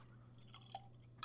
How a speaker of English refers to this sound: Pour it into my new Glencairn glass that I got a few weeks ago.